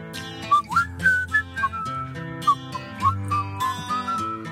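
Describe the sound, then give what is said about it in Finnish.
A person whistles a bright, sliding tune over a steady musical backing, with short melodic phrases and bent notes repeating across the few seconds, moderately loud. “Seuraavaksi tulossa Rider ja Whistle pistetään vihellelle.”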